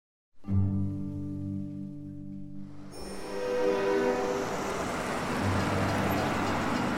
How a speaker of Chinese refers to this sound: 维克多搭乘计程车赶往圣格尔火车站。他站在售票口等着，火车很快就进站了。